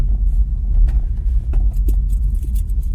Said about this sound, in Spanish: Unas llaves que hay aquí que están vibrando, las voy a quitar del medio también.